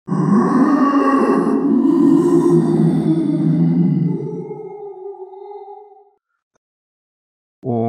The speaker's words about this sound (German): Dann geht die Sonne auf und über den Dschungel hinweg hört ihr das Brüllen einer großen Donnerechse.